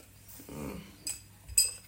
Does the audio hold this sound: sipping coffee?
no